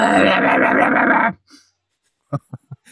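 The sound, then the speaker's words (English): A voice imitates a mermaid's song as it would sound outside of water: a shrieking, screechy song in one loud, harsh, strained burst lasting about a second, followed by a few short, quieter vocal sounds. “I feel like singing like the mer people is like a huge diss for people who can't sing no good because outside of water, mermaid song is like.”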